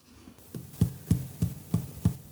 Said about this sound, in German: Mhm, kannst du den Kartoffeligel mal auf den, auf den Tisch so klopfen? So. Mhm. So klopf, klopf, klopf.